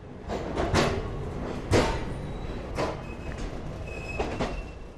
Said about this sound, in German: Während diese Eindrücke langsam sacken, setzt sich der Zug in Bewegung.